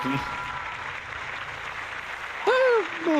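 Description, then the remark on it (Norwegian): A steady wash of crowd applause from a soundboard effect on a radio show, dense and even for a few seconds, then a higher, wavering voice-like cheer cuts in over it near the end. “applaus i alle fall, da. Ja, på grunn av det ly soundboardet ditt.”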